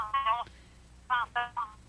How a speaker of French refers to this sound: J'ai quelqu'un au téléphone, mais sauf que j'ai un retour de, son. Ça veut dire que baisse le son de ton, ton radio parce qu'on t'entend et on s'entend.